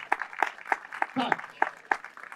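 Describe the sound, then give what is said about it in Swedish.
Audience applause for the leaders of political youth associations, with a steady rhythm of sharp claps, roughly three per second, rising above a lighter, denser patter of hands, moderately loud throughout. “Jättebra, en stor applåd till dem alla som är här.”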